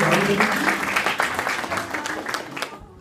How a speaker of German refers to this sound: Wir haben zwei richtige Antworten. Ein Applaus für alle.